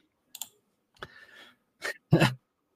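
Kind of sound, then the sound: household object, computer mouse clicking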